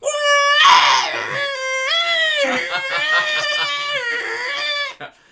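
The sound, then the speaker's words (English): A person vocally imitates the tape loading screech of a Spectrum computer: a loud, continuous, high-pitched warbling wail with wavering, sliding tones, lasting about five seconds before cutting off abruptly. “Yeah, it's kind of like that old modem uh, sound.”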